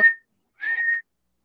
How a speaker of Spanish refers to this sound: viene el silbato, Ahí está el silbato